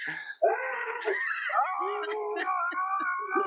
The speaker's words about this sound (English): All right, everyone starts screaming in three, two, one.